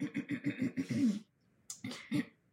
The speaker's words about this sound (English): Why'd you like cough like that?